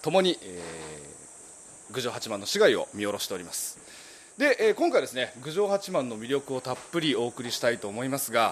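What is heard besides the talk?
cicadas singing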